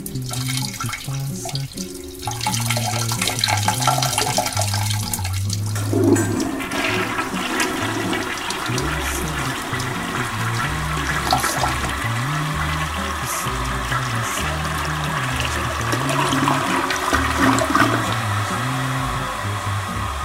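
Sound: toilet flushing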